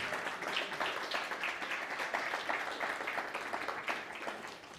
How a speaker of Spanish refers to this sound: aplauso, por favor.